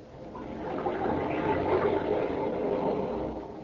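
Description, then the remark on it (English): Mediterranean Sea waves wash gently onto a shore of Mallorca, a steady hissing surge that swells slightly in the middle and eases off toward the end, with no voices present. “Those are waves of the Mediterranean caressing the shores of romantic Mallorca”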